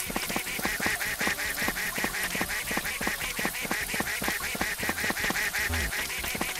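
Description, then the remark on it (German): A video game duck quacks in a rapid, nonstop stream of short, nasal quacks, steady and fairly loud throughout with no voices over it. “Irgendwo dreht die Ente auch wieder um, da muss man aufpassen.”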